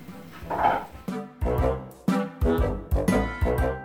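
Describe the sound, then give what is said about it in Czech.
A dog named Benji barks repeatedly in a quick, insistent series of about eight loud barks, with no one talking over them. “Pes mi tady štěká.”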